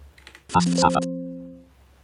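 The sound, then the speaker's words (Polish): A few faint, quick computer clicks as someone clicks Save in Microsoft Teams, then a louder burst of clicking and key clatter, followed by a steady low tone that lingers for about a second before fading. “Klik Save.”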